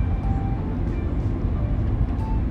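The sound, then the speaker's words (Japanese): A steady, low droning hum fills a car interior as the air conditioning runs on a hot day, a constant rumble with faint tonal whines and no talking. “やもう私もね昨日反省したから今日はおとなしくあの車の中空調がついてます言うほど快適でもないけど、まあ、涼しいといえば涼しいかな”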